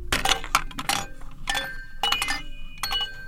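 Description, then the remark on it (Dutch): A roly-poly tumbler toy, a small doll that rocks back and forth when struck and always rights itself, rocks with its bright chime ringing out in repeated clinking bursts with lingering metallic tones, clear with no talking. “Ik kwam al schrijvend op een tuimelaar ik heb er hier één. Eh, hij klinkt ongeveer zo.”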